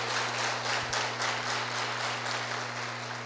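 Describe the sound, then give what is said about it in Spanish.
A crowd breaks into steady, dense applause, many hands clapping at once in a continuous wash for the full few seconds, with a low steady hum underneath and no voices. “Démele un fuerte aplauso a mi triple diamante.”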